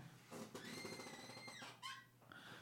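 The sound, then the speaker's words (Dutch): A leather chair in a small English-style office used as a studio creaks and squeaks as someone leans back in it, a drawn-out, fairly quiet groan followed by a few shorter squeaks, with no talking. “wat je op de achtergrond misschien een klein beetje kan horen als ik beweeg, is, mijn stoel”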